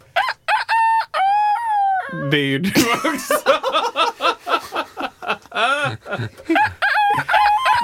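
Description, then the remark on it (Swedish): Two roosters crow loudly in quick succession in the morning, their calls overlapping, followed by people talking and laughing while the crowing fades into the background. “Faktiskt två. Det är två olika. Två tuppar är det.”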